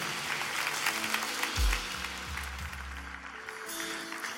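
An audience breaks into sustained applause for the pastor after his sermon, a dense wash of many hands clapping at steady loudness, with a low organ-like hum sounding beneath it.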